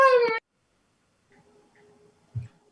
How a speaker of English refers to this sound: Sorry, my dog has just started to make some noise. Sitting right here.